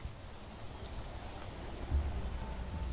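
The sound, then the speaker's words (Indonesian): Steady rain falls with a soft, continuous hiss over a low rumbling background, fairly quiet and unbroken, with a slight swell of low rumble near the middle. No one speaks. “Ia menatap larik hujan dengan hampa.”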